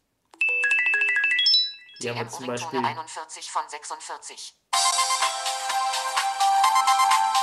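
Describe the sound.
A bright, beeping mobile phone ringtone melody plays briefly as ringtones are previewed in the phone's settings, then a man speaks, followed by a second, fuller and busier ringtone tune playing loudly on its own through the end.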